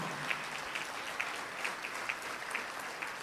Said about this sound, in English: So give yourselves a round of applause. I know you've worked so hard.